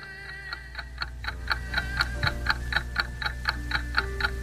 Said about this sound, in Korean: 잠들기 전 머리맡에서 들려오는 시계 초침 소리. 시간의 흐름을 느끼게 하는 유일한 단서가 아닐까요?